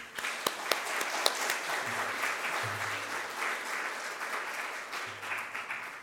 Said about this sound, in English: It's always a bit worrying when people applaud before you've said anything because you never know.